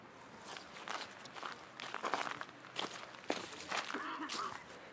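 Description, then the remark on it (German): Footsteps crunching and rustling through dry fallen autumn leaves, a steady walking rhythm of crackly steps over several seconds, with no one speaking. “Jetzt ist das Laub gefallen.”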